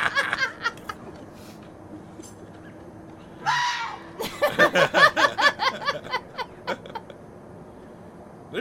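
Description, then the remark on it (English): A fox, running around with a dog, lets out a string of harsh, high yelping screams in a rapid, uneven rhythm, preceded by a short rasping burst, with no one talking over it. “lot of animals that scream like that.”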